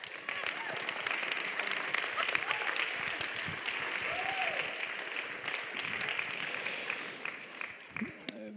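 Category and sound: crowd, audience applause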